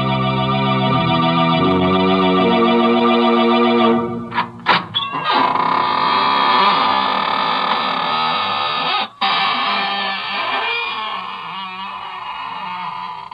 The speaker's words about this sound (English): This is your host, welcoming you in through the squeaking door.